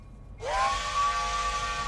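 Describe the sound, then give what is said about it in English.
After a brief moment of quiet, a loud steam train whistle blasts in as the train sets off through the Italian countryside, its pitch sliding up quickly and then holding steady over a breathy hiss until the end. “The train glided through the Italian countryside, chugging northwest away from the capital”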